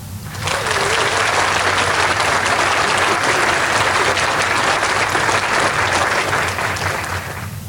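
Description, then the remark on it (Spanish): A large crowd claps steadily and loudly for several seconds, a dense, even wash of applause that starts abruptly and tapers slightly at the end, with no talking over it. “Para eso, un merecido aplauso.”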